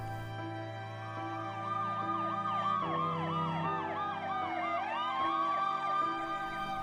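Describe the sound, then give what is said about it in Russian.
Ambulance and police sirens wail and yelp together as an ambulance and then police arrive, overlapping in a loud, steady blare over a low engine rumble, with no voices. “Приехала скорая помощь, затем полиция.”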